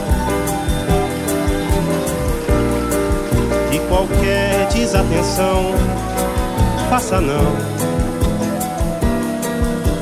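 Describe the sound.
A romantic Brazilian song plays loud and close, a voice singing in Portuguese over full, steady instrumental backing with a regular percussive pulse throughout.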